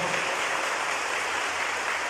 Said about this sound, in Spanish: Denle el aplauso a Jesús, por favor.